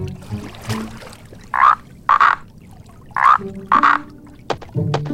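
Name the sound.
toad croaking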